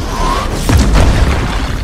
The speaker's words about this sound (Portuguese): Atom passa num rasante pela rua, suficiente para que o legionário pule de sua cela. Sua aterrissagem é firme e é possível ouvir o som reverberando de seu corpo.